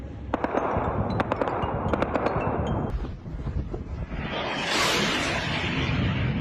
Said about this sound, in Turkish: Kuzey Afrika ülkesi Sudan Ekim 2021'den sonra bir kez daha darbe girişimine sahne oldu. Başkent Hartum ve birçok kentten silah sesleri yükseldi.